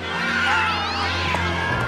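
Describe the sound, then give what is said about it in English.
Several cats meow and yowl at once in a continuous, overlapping chorus of rising and falling cries, fairly loud, over a low steady hum. “Holding together 10,000 half wild short hairs, well, that's another thing altogether.”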